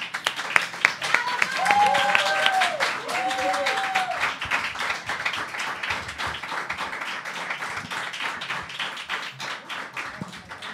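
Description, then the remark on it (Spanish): An audience breaks into steady applause for a presenter after her fast-paced session, a dense patter of many hands clapping that holds for several seconds, with a few whoops and brief cheering voices rising above it early on. “Así que un aplauso”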